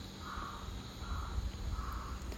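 A crow that has just flown in caws three times at a steady, unhurried pace over a low outdoor rumble of wind and background noise on a hot day. No one speaks.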